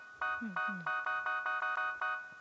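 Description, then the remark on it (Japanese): A bright, loud electronic tone pulses rapidly in a steady, repeating pattern of about nine short beeps, with a couple of low voiced sounds gliding underneath near the start. It comes from a simple instrument that sounds when its bend sensor is bent and the sensor value goes above 0.5. “音が鳴るもうほんと曲げセンサーが、えー、とここに来てる値よこれが0.5を超えた時に下になんか命令を出すみたいなことなんですけど”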